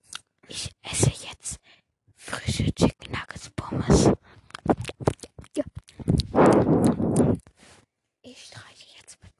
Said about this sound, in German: Also, Leute, ich schmatze jetzt ins Mikrofon. Niemand mag das.